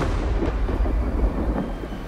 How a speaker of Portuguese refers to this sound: Relâmpagos cortaram o céu e, como eu, ele ouviu o estrondo dos trovões.